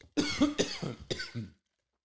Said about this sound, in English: now i'm coughing and I'm not even smoking.